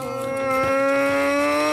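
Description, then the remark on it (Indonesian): The engine of a cabbage-hauling pickup truck at Puncak drones with a steady, strained whine, its pitch creeping slowly upward as it revs. It is loud, with no talking over it. “Itu, itu mobil bak pengangkut kol di puncak tuh kayak gitu suaranya itu.”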